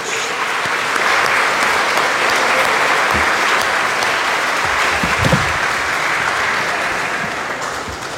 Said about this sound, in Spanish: Y solo por curiosidad quisiera saber, si se puede, cuántos abuelitos hay aquí presentes, cuántas abuelitas. Levanten la mano. Aquí alegre. Démosle un aplauso a todos los abuelos.